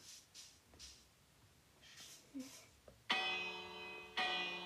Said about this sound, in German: Oh, da ist eine Glocke.